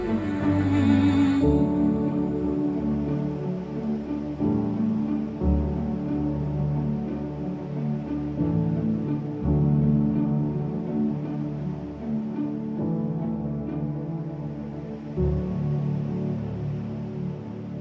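A contemporary worship song plays steadily and fairly loud, with full sustained instrumentation and a swelling, continuous sound; no spoken voices are heard.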